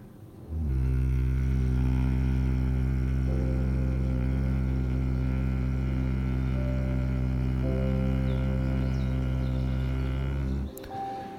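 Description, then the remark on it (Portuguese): A voice hums a long, steady low-pitched drone for about ten seconds, imitating the buzzing of a bee, with a rich buzzy tone that holds evenly before stopping abruptly. “E mais uma vez, o rume, o som da abelha.”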